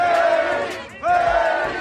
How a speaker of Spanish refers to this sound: Salgado Macedonio llegó a la sede del INE en la Ciudad de México junto con una caravana de automovilistas de diferentes regiones de Guerrero que afuera lanzaban consignas y gritos apoyando al morenista.